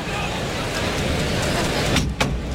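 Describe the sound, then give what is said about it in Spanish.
The heavy bolt of the toriles gate at a bullring scrapes and clanks open near the end, a quick metallic slide with a couple of sharp knocks, rising over the steady murmur of a large outdoor crowd, as the gate opens to release the first bull of the afternoon, from Núñez del Cubillo. “Ahí está el cerrojo de la puerta de Toriles que se abre para dar salida al primer toro de la tarde, de Núñez del Cubillo.”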